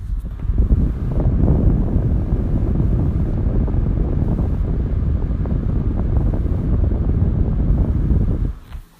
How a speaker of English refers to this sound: here is a little ambient noise from my humidifier.